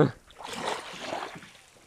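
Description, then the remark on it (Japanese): Ocean waves wash onto a beach in soft, hissing swells, rising twice and receding, at fairly low volume, with no clear voices over them, recorded while crouching at the water's edge to catch the wave sound. “波の音入れたいらしいから。”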